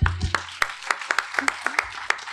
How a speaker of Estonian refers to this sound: aplaus õpetajatele.